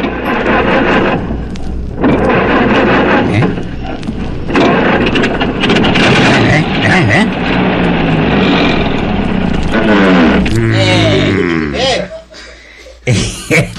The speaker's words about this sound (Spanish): Oye, que está jodido, veo. había oído vos un carro así, no, ¿verdad que no?